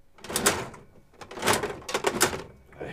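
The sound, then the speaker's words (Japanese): A gacha capsule machine's handle is cranked clockwise, giving several rough, ratcheting grinds and clunks in uneven bursts, fairly loud, with brief pauses between turns and no talking. “逆回しをしてください右回転で回してください、そうですねね、反時計回りでやっちゃいましたごめんなさいねこれはボケではないですね 今のは、はい、回します”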